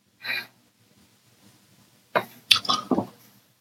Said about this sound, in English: Sorry, someone just set off fireworks outside, so I guess it's starting. It's June fifteenth, sixteenth, people. All right, we're in the Independence Day season.